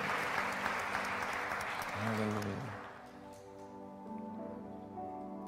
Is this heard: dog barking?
no